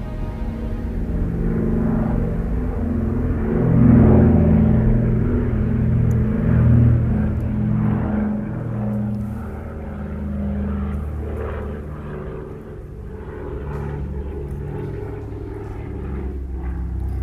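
Heavy radial propeller engines of a vintage DC-3 airliner, nine cylinders per engine, drone steadily, a loud, throbbing low rumble that swells slightly and then holds for the whole stretch, with no voices.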